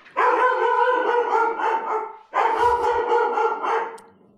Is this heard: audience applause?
no